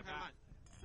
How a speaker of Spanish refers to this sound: Yo quiero brindar. Vamos a hacer un brindis.